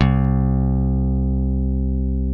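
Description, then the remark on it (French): A single low bass guitar note, a C, played as the bass part while the other chords are in F, rings out with a sharp attack and then sustains steadily, slowly fading over a couple of seconds with no other sounds. “Voilà, un Do à la basse alors que les autres accords sont plutôt en Fa.”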